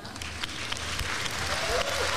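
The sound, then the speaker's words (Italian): Dense, steady applause from an audience at the Musicultura music contest fills the whole stretch, with a few high, short shrieks and cheers rising out of the clapping near the end. “Ci sono degli urletti.”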